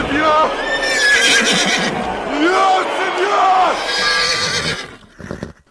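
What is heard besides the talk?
horse neighing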